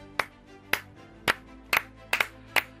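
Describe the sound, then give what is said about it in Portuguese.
Sparse applause for the cyclist João Almeida from what sounds like a single pair of hands: about seven sharp, crisp claps at an uneven pace, a couple landing in quick pairs, with no voices. “Um aplauso para o ciclista João Almeida, sim, sim.”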